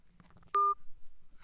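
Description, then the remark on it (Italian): A single loud telephone keypad tone as a dropped call is redialed, a steady two-pitch beep lasting about a fifth of a second, preceded by faint muffled voices and followed by quiet line noise. “ormai, è caduta la linea, lo richiamiamo subito, lo richiamiamo subito perché probabilmente ci sono problemi di connessione”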